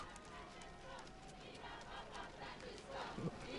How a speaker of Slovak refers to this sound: Počujeme aj hlasy, kde v taliančine Slováci vítajú Nech žije svätý otec František. Víva pápa Francesco.